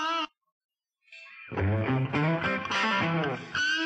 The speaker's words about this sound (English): All right, last guitar. It's the last guitar. Pinch harmonics. Let's hear that. Let's hear these two.